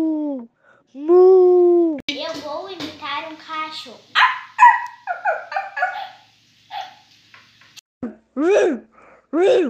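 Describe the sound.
A child's voice imitates a dog barking, giving several short, yelping "woof" sounds, with brief adult speech and chatter mixed in between the barks.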